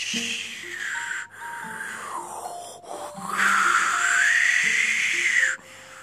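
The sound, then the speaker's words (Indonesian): A voice imitates strong wind in a dense forest at night, with long, breathy whooshing blows that swell and fade across several seconds, fairly loud, while soft piano-like notes play underneath. “Shh, ada angin yang besar.”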